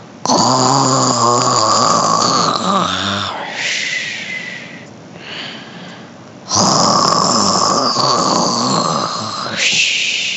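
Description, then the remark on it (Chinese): Loud, exaggerated snoring of Zhu Bajie asleep in the grass, in two long cycles: a rough, buzzing snore followed by a breathy, whistling exhale, then the snore returns just as strongly. No talking. “有人打呼的声音。”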